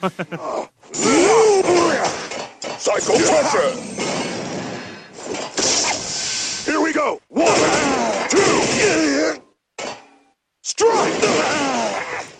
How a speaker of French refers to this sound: C'est marrant d'entendre les, les, les, les, combats purs sans la musique en fait